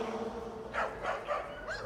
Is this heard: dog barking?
yes